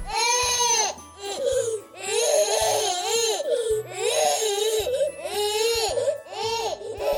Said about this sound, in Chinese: 他好累，好困，却睡不着。 地球宝宝哇哇大哭。